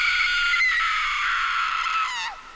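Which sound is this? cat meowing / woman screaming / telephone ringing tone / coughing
woman screaming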